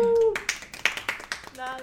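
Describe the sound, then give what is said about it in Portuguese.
A short burst of hand clapping, about five or six irregular claps at moderate volume, framed by brief cheering voices at the start and end. “Eu não consigo bater palmas.”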